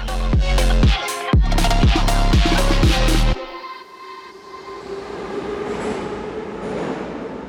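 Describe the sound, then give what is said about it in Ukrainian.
A metro train rolls through Derzhprom station, its wheels clattering loudly in a rapid rhythm, then the sound drops abruptly to a softer, steady rumble and hiss. No one speaks. “Це станція Держпром.”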